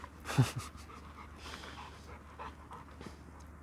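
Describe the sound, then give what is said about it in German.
A dog pants quickly and steadily, short breathy huffs repeating in a rapid rhythm, with one slightly louder burst near the start and no voices. “Und da kommen Hunde.”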